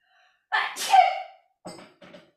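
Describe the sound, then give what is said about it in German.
A single loud sneeze with a sharp inhale buildup and explosive release, followed by a couple of softer sniffs or breaths. “Gesundheit.”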